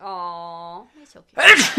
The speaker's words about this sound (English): Bless you. Thank you.